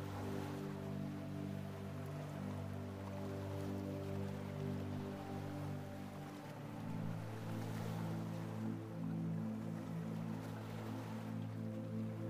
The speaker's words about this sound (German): Stell dir vor, wie du dich an einem wunderschönen Strand am Meer befindest. Nimm die Geräusche der Wellen wahr. Das Rauschen des Meeres begleitet dich in dieser Meditation